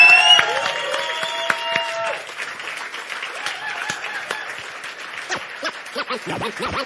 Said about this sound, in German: nochmal einen großen Applaus für Andreas, großen Applaus für Mike, großen Applaus für Roman